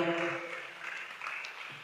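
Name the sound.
applause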